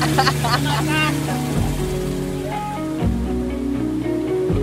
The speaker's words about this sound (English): as we are taking off in the boat.